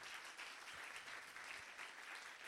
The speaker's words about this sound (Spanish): Alguien le da un aplauso al Señor por su palabra.